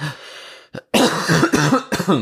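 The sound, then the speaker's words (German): A loud cough with a short rasping burst, followed by a few more harsh, throaty coughs in quick succession, with no talking. “Oder ein Hust-Podcast.”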